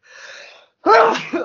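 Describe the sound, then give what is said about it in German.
A soft breathy intake leads into a single loud sneeze, followed by a brief laugh. “Corona. Gesundheit.”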